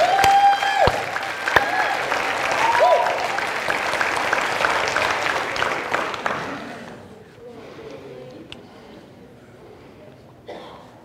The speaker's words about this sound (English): Let's give him one more big praise clap right now.